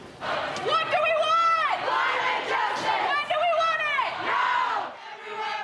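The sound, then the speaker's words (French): A crowd of protesters chants loudly in unison in the corridors of the COP climate conference, repeating the same shouted phrase twice in a steady rhythm, their voices echoing. “Hier encore, les manifestants ont investi les couloirs de la COP pour demander plus d'action des gouvernements.”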